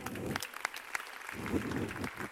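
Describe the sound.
A crowd applauds with steady, dense clapping, a few sharper individual claps standing out, and a low murmur of voices underneath that briefly drops away midway.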